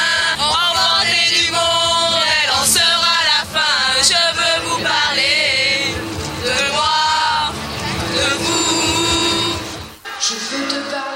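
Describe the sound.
A group of young girls sings together loudly in high, bright voices, their overlapping melody running steadily for about ten seconds before breaking off near the end.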